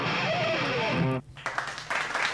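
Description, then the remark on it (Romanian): A dense wash of applause at the start of season 6 of a provincial morning show, welcoming the production crew, with some faint tonal voices mixed in. It cuts out abruptly for a moment, then resumes in patchier, uneven bursts. “Și aplauze.”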